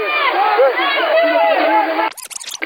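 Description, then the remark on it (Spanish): A dense crowd clamors with overlapping shouting voices in a street, then sudden loud, scuffling bursts break in as police come running and young people run into the street. “La policía viene corriendo y los jóvenes a la calle.”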